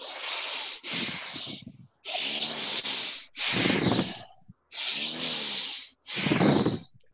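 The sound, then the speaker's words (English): Fast, deep breathing during a guided meditation: six loud, airy breaths alternating in and out at a steady rhythm of roughly one per second, each a strong hissing rush of air, with no talking. “And then in the meditation, it just start, the breathing starts getting faster and deeper, and you will be you you start getting to a pace where where it's like”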